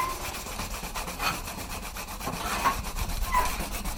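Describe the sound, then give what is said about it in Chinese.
Hand sanding of a bamboo fan with a dried medicinal grass used in place of sandpaper, about half an hour per fan: a steady stream of quick, raspy rubbing strokes in a brisk, even rhythm, dry and scratchy, continuing throughout with no voices. “大家这一个扇子，大概这样磨的话，一个扇子可能要花到半个小时。”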